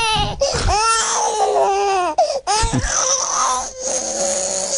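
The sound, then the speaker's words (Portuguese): A crying baby sound effect: a baby wails loudly and continuously in rising and falling cries, with two brief gasps for breath between bursts, unbroken for the whole stretch. “A gente tocava, a gente tocava o bebê chorão pro, pro, pro isso”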